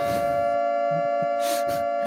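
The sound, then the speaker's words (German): A steady alarm siren sound effect blares with a sustained, multi-toned wail holding constant pitch, accompanied by bursts of hissing noise; no voices are heard. “Spoiler Alarm. Bitte bringen Sie sich in Sicherheit.”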